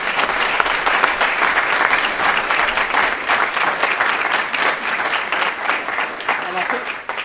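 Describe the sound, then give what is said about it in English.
An audience claps steadily for several seconds, a dense, loud wash of many overlapping hand claps that holds level throughout and thins slightly at the very end. The applause is for a panel at the end of the panel section of an evening event. “So if you don't mind, perhaps putting your hands together for our panel.”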